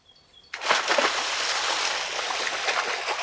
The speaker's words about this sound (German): Mit lautem Geplatsche landet Max in einem Fluss.